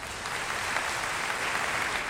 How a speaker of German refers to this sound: Und jetzt ist er hier. Ähm, bitte begrüßen Sie mit einem großen Applaus meinen Friseur.